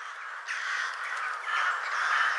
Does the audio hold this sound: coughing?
no